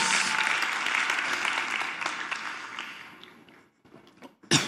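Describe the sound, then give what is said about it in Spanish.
An audience applauds steadily for Jesus Christ in a morning gathering led by a pastor, with dense clapping that gradually fades over several seconds, trailing off into a few scattered claps at the end. “Alguien déle un aplauso a mi Señor Jesucristo esta mañana.”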